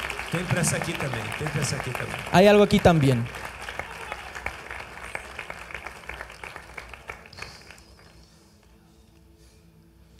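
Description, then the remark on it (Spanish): An audience applauds in a steady, dense patter that gradually thins and fades out toward the end, while a man speaks and briefly calls out loudly over the clapping. “ok, los dejo aplaudir. Ok, ok, ok. Aplaudan.”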